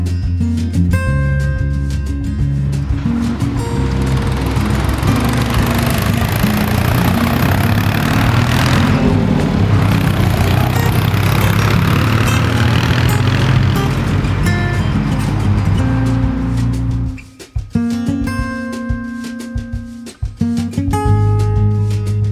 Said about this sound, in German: Jetzt brauchen wir mal ein Auto und machen mal einen kurzen Trip nach Großumstadt.